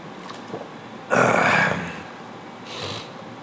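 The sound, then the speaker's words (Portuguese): Someone takes a drink of water: a loud, breathy gulp lasting about half a second, a pause, then a shorter, softer exhale. Nobody speaks. “Só um minutinho que eu vou beber uma água aqui, pessoal.”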